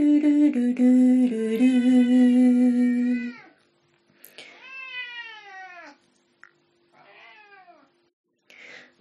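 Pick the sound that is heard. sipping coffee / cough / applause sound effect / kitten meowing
kitten meowing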